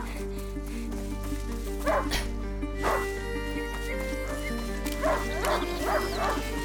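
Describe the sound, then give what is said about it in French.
A hunting dog barks and yips in short bursts, a pair early on, one more, then a quick run of several near the end, over a steady low hum. “Un chien de chasse n'est pas censé semer son maître”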